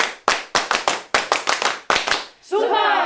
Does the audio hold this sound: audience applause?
yes